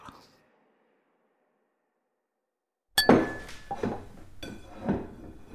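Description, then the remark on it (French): After a stretch of silence, dishes and cutlery start clinking and clattering at the supper table, with bright ringing taps and scraping that carry on busily to the end. “À l'heure du souper, mon père s'est assis à la table avec nous.”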